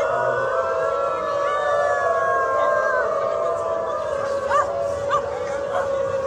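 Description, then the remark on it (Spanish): Several people gathered at a subway station exit in Berlin, protesting for rights as transspecies, howl like dogs in long, overlapping wavering wails. A few short bark-like yelps break in near the end over a steady crowd din. “Estas personas aullaban, ladraban y andaban en cuatro patas por toda la estación pidiendo derechos animales”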